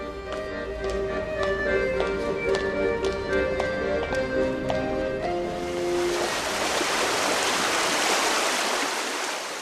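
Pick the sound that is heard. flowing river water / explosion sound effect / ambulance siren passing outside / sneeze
flowing river water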